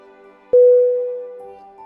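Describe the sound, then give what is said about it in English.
A car horn sounds one loud, sustained blast with a steady, brassy pitch. It starts abruptly after a short, quieter moment and holds to the end, with no voices present. “The incessant honk of the car's horn woke me from sleep.”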